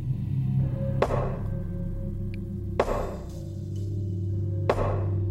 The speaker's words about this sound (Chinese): 一阵冰冷、毫无温度的规则的敲门声，瞬间击碎了方兰之前所有的心理准备。